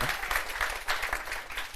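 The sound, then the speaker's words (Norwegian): A short burst of applause, dense clapping from a small group that stays fairly steady and moderately loud before tapering slightly at the end. No voices are heard. “har applaus for det.”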